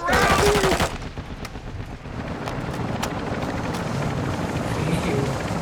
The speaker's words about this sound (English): Helicopter landing, coming inbound.